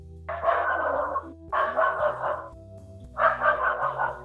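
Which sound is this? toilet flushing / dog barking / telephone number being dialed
dog barking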